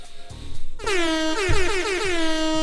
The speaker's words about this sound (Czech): Jenom tak jsem si tady zatroubil. Tak, já si vlastně hlavně musím zapamatovat, co který tlačítko dělá, jo. Ono je hrozně pěkný, že si sem dáte nějaký jako barvičky, ale já si pamatuju právě jenom tady tohle, ten horn.